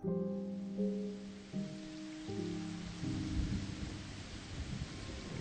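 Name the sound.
rainstorm with thunder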